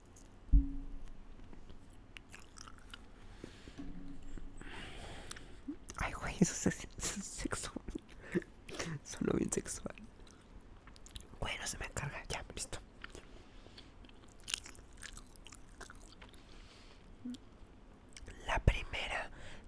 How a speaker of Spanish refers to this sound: Entonces vamos a comer la gomita. Está buena amigos, está buena.